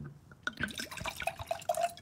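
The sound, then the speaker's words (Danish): White wine, a Pinot Grigio, pours into a glass in a gurgling, splashing stream with rising ringing tones as the glass fills over a couple of seconds. “Jamen, så tømmer vi lige den her stor. Ja, okay. Så kan du lige smage den her Pinot Grigio.”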